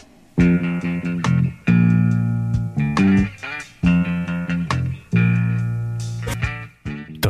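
A funk band track plays loud and up front, with punchy sustained chords that break off into sharp rhythmic stabs over crisp percussion, repeating in tight phrases. No one speaks.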